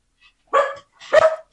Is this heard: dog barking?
yes